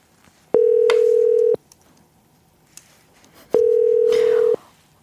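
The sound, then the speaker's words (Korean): A telephone dial tone on the call-in line of the radio show Gayo Gwangjang sounds in two steady, one-second electronic hums separated by a couple of seconds of near silence, clear and fairly loud, with no one talking. “다음 전화 주세요. 다음 전화. 다음 전화.”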